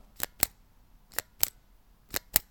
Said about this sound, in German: Das war ein Kugelschreiber. Ein Kugelschreiber, den man auf und zu klacken lässt.